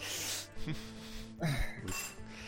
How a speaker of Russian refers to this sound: Так, господи, вилка падает. Вилка падает это кому? Гостю или к даме? Вилка это падает тому, что пойдешь ее мыть потом. Ей уже есть нельзя.